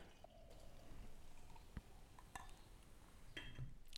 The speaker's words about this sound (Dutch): Laat hem even inschenken.